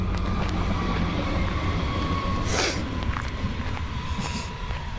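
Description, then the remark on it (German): A tram rumbles past on its rails, a steady loud low roar with metallic squeals and hissing bursts as it goes by, no voices over it. “das war wieder eine Straßenbahn.”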